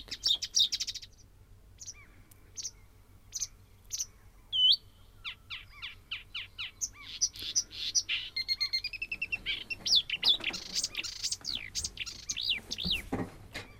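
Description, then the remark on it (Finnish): A songbird chirps and twitters in quick, high-pitched bursts, starting with sparse separate notes and building into a dense, rapid warbling run, with no talking. “Semmoista sirkutusta.”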